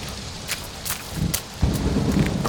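A thunderstorm with steady rain hissing throughout and a deep rumble of thunder rolling in partway through, building to a heavy boom. No voices.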